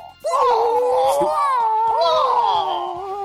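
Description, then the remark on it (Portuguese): A voice imitates a Bruce Lee-style kung fu battle scream: one loud, sustained, high-pitched yell lasting about three seconds, its pitch wavering and sliding, with no other sounds. “tem que ter o gritinho escroto. Oh!”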